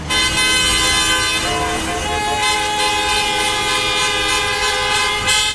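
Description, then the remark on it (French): A loud, sustained horn blares nearly nonstop over the rumble of heavy street traffic, with faint voices mixed into the city noise. “J'entends les voitures, les gens qui crient, euh, et, tout ça, ça m'agresse.”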